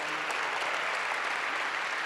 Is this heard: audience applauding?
yes